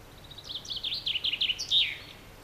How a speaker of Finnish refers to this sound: Ja pannaan tähän nyt soimaan ensiksi Peippo.